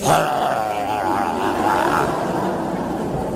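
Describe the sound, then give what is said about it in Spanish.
A person imitates a barking dog, producing a steady, gruff, throaty vocal noise that rumbles on for about three seconds at an even, fairly loud level, with no separate words. “Ladrando, ¿qué?”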